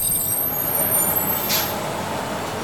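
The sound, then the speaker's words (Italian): A large bus idles with a low engine rumble, then a sharp hiss of air brakes bursts out near the middle before the steady engine drone continues. No one speaks. “Adesso però ci fermiamo. Nei villaggi più rurali del Congo i pullman non ci arrivano.”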